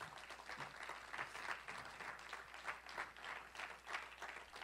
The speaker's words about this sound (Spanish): ¿Y cuántos le dan un aplauso a Cristo por eso? Amén.